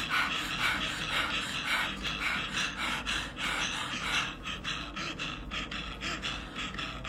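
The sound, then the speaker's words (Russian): Fast, rhythmic active breathing through the mouth during an energy-raising breathing exercise, each breath a breathy puff repeating steadily for several seconds, with no talking. “Активное дыхание через рот.”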